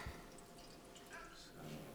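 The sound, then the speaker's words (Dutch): Warm water pours steadily into an empty, dry container, a soft continuous trickling and splashing heard at a low level for about two seconds. “Nee, er zit nog geen water een beetje voor je vast?”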